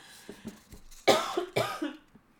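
cough

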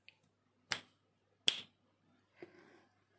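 finger snap

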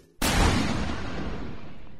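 starting pistol shot

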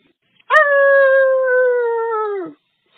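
howl

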